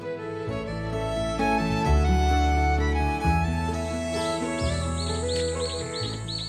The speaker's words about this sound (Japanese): 今回もいつものように福島県三春町の里山にある森に囲まれたウッドデッキで収録をしました皆さんもぜひ冷たい飲み物などを用意していただきセミやウグイスがなく森の木陰で過ごすひとときをお楽しみください